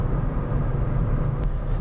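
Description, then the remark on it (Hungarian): Steady low rumble of road traffic heard from inside a moving car, a constant engine and tyre drone with a brief faint click near the end. “Forgalom zaja, navigáció, stb.”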